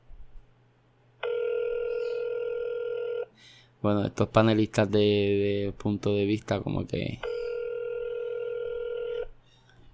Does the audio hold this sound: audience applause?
no